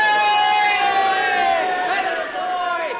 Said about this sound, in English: What's all the cheering about? They're cheering first round trip to the moon.